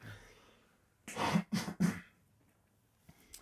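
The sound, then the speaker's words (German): Three quick, harsh coughs in a tight burst, followed by quiet breathing and faint background noise. “Guten Husten, mein Lieber.”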